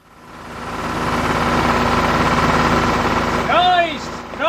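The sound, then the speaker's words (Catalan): A tractor engine runs loud, chugging in a steady rapid rhythm that swells in over the first second, with a voice briefly calling out near the end. “Però, Roger, què, què fas amb un tractor?”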